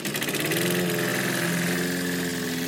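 A lawn mower engine runs at a steady, rumbling idle, loud, with a continuous throbbing drone and no voices.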